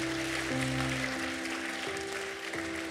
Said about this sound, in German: Lass uns einen Applaus geben für die Menschen, die diesen Schritt gemacht haben.